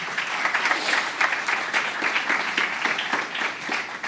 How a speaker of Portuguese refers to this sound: Será que você pode aplaudir Jesus nessa manhã?